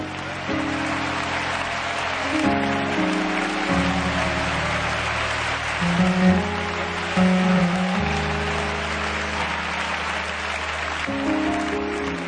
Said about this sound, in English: Simon Peter's going too. Come on, clap your hands and give God praise for it.